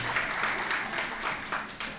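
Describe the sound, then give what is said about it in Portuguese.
A crowd applauds the person beside them, many hands clapping together in a dense, continuous patter at a fairly loud, even level, with no one speaking over it. “Aplauda a pessoa que está do seu lado.”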